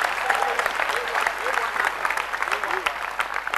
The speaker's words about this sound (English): is that how to clap